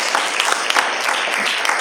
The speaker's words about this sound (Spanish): ¿Cuánto le dan fuerte aplauso al Rey de Reyes y Señor de Señores?